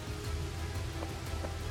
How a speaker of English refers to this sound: It's dark up here and it's raining.